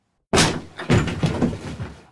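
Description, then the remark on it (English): A door is unlocked and pushed open: a sudden clatter of handle and latch, then a rush of rattling and scraping as it swings, fairly loud, with no voices. “Uh, can you please unlock this door?”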